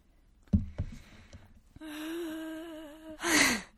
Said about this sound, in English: Okay. Let me drink some water.